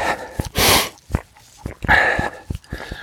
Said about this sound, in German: Ich schnaufe, es geht bergauf und ich gehe übrigens. Lass mich vom Hund hochziehen. Auf Asphalt.